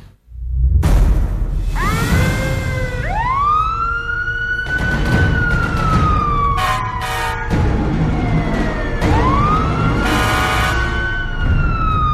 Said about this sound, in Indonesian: Lalu lalang suara mobil ambulans sudah akrab di telinga Zara, 36 tahun, warga sekitar tempat pemakaman umum TPU Keputi, Surabaya. Sejak Indonesia dinyatakan darurat COVID-19, tak terhitung lagi mobil ambulans yang melewati rumahnya.